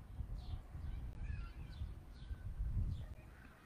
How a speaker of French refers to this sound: Mais le son de cet oiseau là, juste là maintenant, est-ce qu'il n'est pas nouveau Est-ce que ce n'est pas la première fois que je l'entends La toute première fois ce son-là